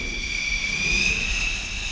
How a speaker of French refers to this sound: Une pontée de quatre chasseurs s'apprête à décoller, véritable chorégraphie sur le pont entre ceux chargés de fixer les avions à la catapulte et ceux qui donnent le départ, on les appelle les chiens jaunes.